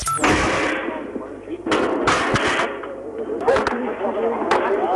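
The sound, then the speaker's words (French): Several sharp gunshots from sharpshooters crack out at irregular intervals at the Fürstenfeldbruck airfield near Munich, over a noisy, crackly outdoor recording, with indistinct voices in the background. “Vous entendez actuellement les coups de feu des tireurs d'élite qui sont toujours en train de fouiller avec des chiens policiers sur le terrain, en train de fouiller.”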